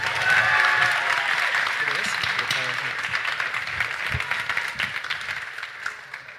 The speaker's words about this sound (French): Allez, dans 3 secondes, on va lancer l'applaudimètre. 3, 2, 1, du bruit